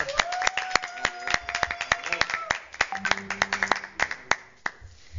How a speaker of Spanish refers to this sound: la verdad que acá les tenemos que dar un aplauso a todos los que estamos en el estudio, por favor.